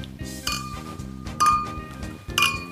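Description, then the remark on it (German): Glasses clink together in a New Year's Eve toast, three bright ringing chimes spaced about a second apart, each leaving a high shimmering tone over a low, steady musical bed. “Äh, Silvester, Leute, wir feiern und wir stoßen erstmal an.”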